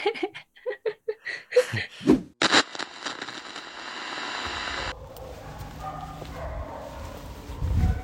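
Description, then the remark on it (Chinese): A dog barks in a quick, loud series of about eight sharp yaps, followed by a burst of steady hiss and then a low, continuous rumble with no one speaking. “确实狗叫太吵了”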